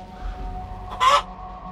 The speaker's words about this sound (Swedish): Ett ljud som borde ha varit en fnysning undgick min mun. Jag hoppade till när jag insåg att det lät som en kluckande höna.